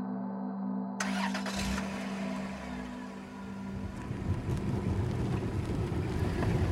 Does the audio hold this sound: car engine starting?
yes